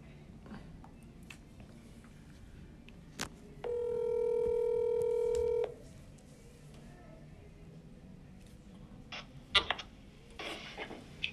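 A single steady electronic phone tone, like a ringback, sounds for about two seconds as a guest is called on the phone, with scattered soft clicks and taps before and after.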